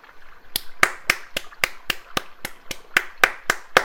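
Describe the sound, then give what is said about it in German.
Steady rhythmic hand clapping, about a dozen sharp, evenly spaced claps at a brisk pace, fairly loud, with no voices. “So Applaus wert.”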